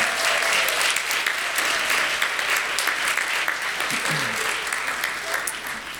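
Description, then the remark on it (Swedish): An audience claps steadily for the choir, a dense, sustained round of applause filling the room for several seconds before easing slightly toward the end. “Kan vi inte ge dem en jättestor applåd?”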